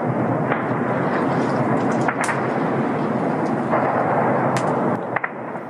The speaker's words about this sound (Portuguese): As tropas russas tomaram o controle da maior usina nuclear da Europa depois de uma batalha que representou um perigo para todo o continente. Um vídeo amador registrou o barulho da artilharia pesada.